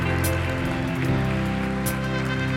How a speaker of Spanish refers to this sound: Dele fuerte un aplauso al Señor por ellos.